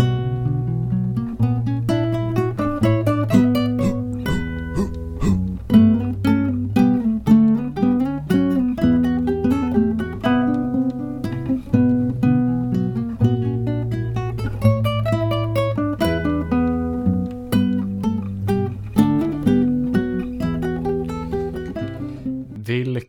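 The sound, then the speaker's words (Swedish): An upbeat instrumental intro jingle plays steadily for the whole stretch, with a punchy rhythmic beat and layered melodic parts, loud, with no talking over it. “De, de trogna lyssnare vet så var detta introt.”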